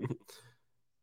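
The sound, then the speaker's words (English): A single sneeze: a short voiced intake followed by a sharp, breathy burst of air that quickly fades into quiet. No talking. “there he is. Yeah. Bless you.”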